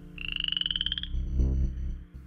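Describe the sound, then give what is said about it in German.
Frogs croak: a rapid, high pulsing trill for about a second, then deeper, throaty croaks rumbling underneath. No one speaks. “Und jetzt? Frösche?”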